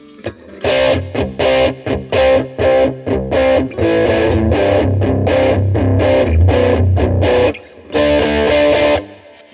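An electric guitar through a pedal with gritty, old-school crunch distortion plays loud, choppy chord stabs, then a longer sustained stretch, a brief gap, and one final ringing chord. No talking.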